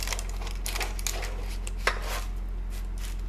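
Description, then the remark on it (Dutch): Scissors cutting through pizza: a run of irregular, crisp snipping and crunching bursts over a steady low hum, with one sharper snip partway through and no one talking. “Oh, ik ga hem, ik ga knippen. Ik wou zeggen snijden.”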